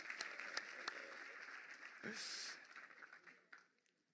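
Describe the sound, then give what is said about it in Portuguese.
An audience claps steadily, a dense, moderately loud patter that swells briefly midway and then fades away after a few seconds. “O homem mais humilde da sala, será que nós podemos aplaudir”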